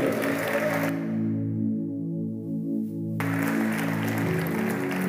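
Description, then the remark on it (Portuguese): An audience claps in praise of God in steady bursts over sustained, swelling keyboard chords; the clapping drops out for a couple of seconds, leaving only the held music, then returns loudly. “Se você crê e concorda, aplauda esse Deus maravilhoso, soberano.”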